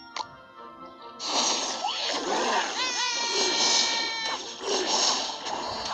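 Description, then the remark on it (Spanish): A video game dragon's fire-breath attack: a roaring, hissing whoosh bursts in after a short quiet start and rushes on for several seconds, with whistling tones sliding up through the noise. “Si escuchan ese fuego, es donde está atacando.”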